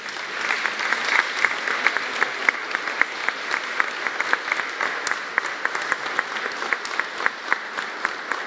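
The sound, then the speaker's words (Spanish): Sustained applause from a crowd for award-winning teachers, a dense steady patter of many hands clapping at a fairly even level for several seconds, with no voices standing out. “el reconocimiento de nuestro aplauso para todos los maestros galardonados.”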